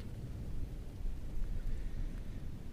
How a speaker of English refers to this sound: I was going to ask why not when I heard thunder coming from outside.